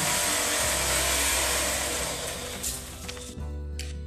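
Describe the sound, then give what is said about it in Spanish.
An old motorbike engine runs in a loud, steady, rattling drone with a low throbbing hum, briefly changing pitch near the end before settling again. No one speaks. “Sacó su vieja moto y le dijo a sus amigos que se subieran.”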